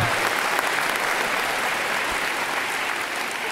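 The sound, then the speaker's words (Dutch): A short burst of steady, dense applause, like a canned clapping effect, loud and continuous for a few seconds with no voices over it. “Dat was een applausje.”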